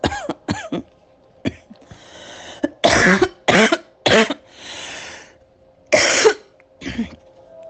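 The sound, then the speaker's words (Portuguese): A loud coughing fit: a rapid cluster of harsh coughs, then several heavier hacking bursts spaced out over several seconds, with raspy breaths and throat noise in between. “Ai, hoje minha tosse tá pior.”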